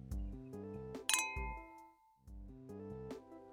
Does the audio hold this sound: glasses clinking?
yes